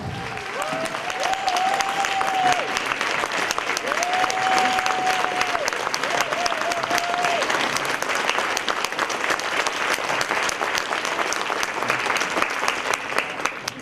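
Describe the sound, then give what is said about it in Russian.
A crowd at a training seminar bursts into sustained, loud applause welcoming their trainer, dense clapping with a few cheers and whistles rising above it in the first seconds, continuing steadily throughout. “И бурными овациями поприветствуйте вашего тренера”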